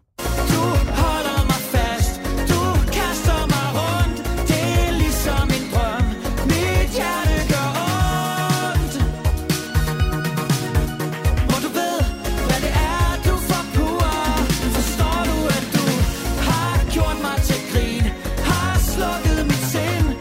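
A newly released pop single, out last Friday, plays continuously at full volume, with plenty of 80s nostalgia, a steady driving beat, bass and layered melodic instruments filling the whole stretch without any talking over it.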